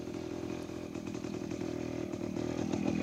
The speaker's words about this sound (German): Mit einem schwelenden Holzscheit entzündete ich mir eine Zigarette und beschloss, schlechte Laune zu bekommen, als ein Motorrad den Feldweg heraufratterte.